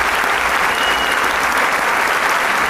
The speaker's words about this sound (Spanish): nos ha dado una magistral, magistral muestra de cómo tocar a edward Grieg regresa una vez más para recibir el caluroso aplauso del público.